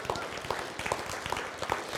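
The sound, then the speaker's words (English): An audience claps their hands together for the gut of Nehemiah, after a reading from Nehemiah chapter 13, in a dense, steady burst of applause, many overlapping claps blending into a continuous crackling patter that holds an even loudness throughout. “Can you clap your hands for the gut of Nehemiah?”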